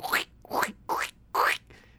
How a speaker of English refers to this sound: is that you crinkling over there? That's the sound of her casting her little magic spell on her shoes.